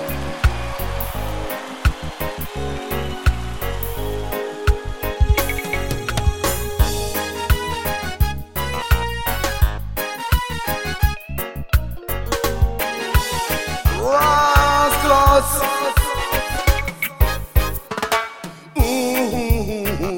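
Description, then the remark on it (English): A music track plays loudly and continuously, with a steady rhythmic beat under layered tonal instruments, and no one talks over it. “From now, we will listen to a music”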